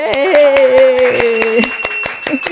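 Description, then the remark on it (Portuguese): Loud, steady handclaps in an even rhythm, roughly five per second, given as a round of applause for a channel's new sponsor, the IEPSIS institute, with a sustained voice-like tone held over them that slides slightly in pitch. “Uma salva de palmas para o nosso novo patrocinador, o IEPSIS.”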